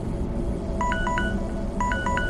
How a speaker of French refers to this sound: 5h04. Une notification s'affiche sur mon terminal, illuminant la pièce d'une lumière verte.